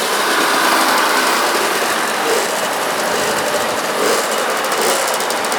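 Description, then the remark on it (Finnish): A moped engine buzzes loudly and steadily at high pitch, revving with a slight rise and fall and a rapid rattling pulse near the end, with no voices. “No onpa tuon tuo mopoilija innossa.”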